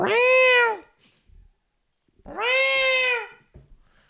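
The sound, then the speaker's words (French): A cat named Michael Schofield meows twice, loud, with a long drawn-out cry, a pause of about a second and a half with a few faint soft knocks, then a second similar meow. “C'est comme la septième fois que je t'entends depuis qu'on a commencé à enregistrer.”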